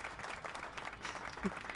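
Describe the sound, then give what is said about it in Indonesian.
A crowd applauds, many hands clapping in a dense, steady crackle that carries on for the whole moment at a fairly soft level, with no one speaking over it. “tadi ada tepuk oh, tangan”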